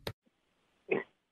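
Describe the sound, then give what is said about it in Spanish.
A female pet dog barks twice, a sharp clipped yap at the start and then a fuller, louder bark almost a second later, with quiet in between and no talking. “una disculpa por los ladridos de mis perras, que evidentemente están felices también de escucharte a ti y estar con nuestra audiencia.”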